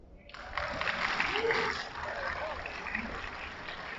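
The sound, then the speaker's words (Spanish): An audience at a talk with writers claps steadily for several seconds for an audience member's question, a dense crackling burst of applause that starts suddenly and holds at a fairly even level, with faint voices murmuring underneath. “Primero, un aplauso por su pregunta.”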